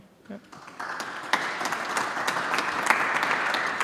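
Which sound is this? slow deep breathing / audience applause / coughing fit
audience applause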